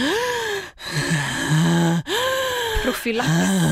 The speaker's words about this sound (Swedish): andningen?